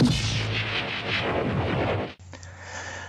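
A short, loud Spectral Radio News jingle with dense, swelling synthetic sound that cuts off abruptly, followed by a brief sustained tonal tail. No one speaks over it.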